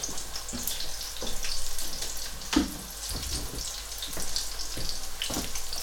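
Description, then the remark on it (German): A little oil sizzles steadily in a large, preheated enamel pan, a continuous hissing crackle with scattered sharper pops and clicks, fairly loud, with no voices. “So, jetzt haben wir die große Pfanne, die emaillierte, haben wir schön vorgeheizt. Haben wir jetzt ein bisschen schön Öl reingemacht.”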